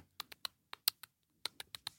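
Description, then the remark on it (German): Quick, light taps on a MacBook laptop keyboard, about ten crisp keystrokes in two short bursts separated by a brief pause, fairly quiet with no voices. “also, ich habe getippt auf einem MacBook.”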